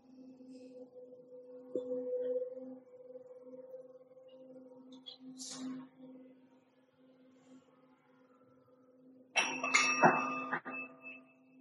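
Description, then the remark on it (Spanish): A singing bowl hums with a steady, pulsing low tone that sustains for several seconds, then a brighter metallic strike rings out near the end and lingers. No one speaks. “Esta es como la evolución de los cuencos, esto es con lo que empezamos nosotros a conectarnos con Dios, con nuevos niveles y estados, diferentes dimensiones fuera del, cuerpo humano”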